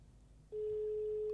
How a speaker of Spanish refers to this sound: A ver. Suena el teléfono.